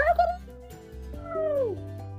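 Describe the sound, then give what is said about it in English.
A human voice imitates a rooster's crow, starting with a short call and then a long crow that rises and falls in pitch. It is fairly loud, over a steady low hum. “He can go like a rooster.”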